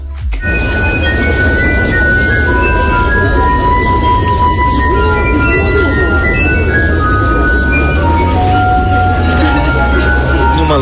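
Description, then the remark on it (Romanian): A glass harp of several glasses, each filled with water to a different height, is played by a finger circling the rims, giving slow, sustained ringing tones at several pitches, the pure notes overlapping and gliding into one another above a loud, steady rumble of background noise; recorded in a European city. “sunt mai multe pahare și fiecare e umplut la o anumită înălțime, cu apă sau o anumită cantitate. Cu apă. Uh-huh și învârt cu degetul așa pe buză.”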